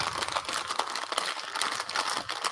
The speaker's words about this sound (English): What are you eating over there? What's that? I said, what are you eating over there? You sound like you got a bag of Triscuits. Oh no, I just picked up a bag on the ground.